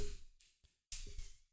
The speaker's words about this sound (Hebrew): בוא נפעיל אותו. מה, ש... מה שאתם שומעים זה המנוע פה פועל.